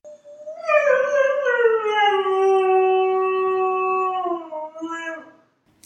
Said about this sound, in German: hey, die, äh, cool, die hat ja Hunde im Hintergrund.